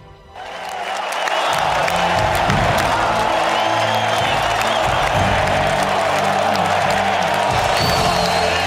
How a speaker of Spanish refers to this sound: Iba a pedir un minuto de silencio, pero mucho mejor una gran ovación como a los grandes toreros.